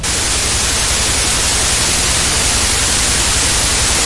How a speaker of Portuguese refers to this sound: entra aquele cinza na televisão. Não, não, ruído branco. É, é o ruído branco.